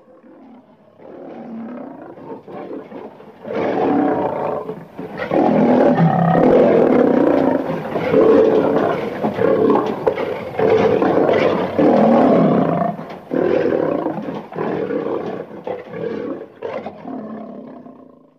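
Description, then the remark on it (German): A lion roars in a long series of deep, rumbling bellows, starting softly, swelling to loud sustained roars, then tapering into shorter grunting calls, with no talking. “Oder sie brüllen, um einfach alle zu zeigen, hier ist mein Gebiet.”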